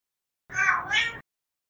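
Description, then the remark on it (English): A single drawn-out meow from a cat called Mr. Biscuit, clear, rising and dipping in pitch over under a second, with silence before and after. “And I walked in on you loving that cat that had previously pissed all over your shirt.”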